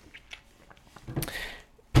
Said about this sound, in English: sorry, I lost my train of thought because I became aware that I was twirling ice cubes into the mic.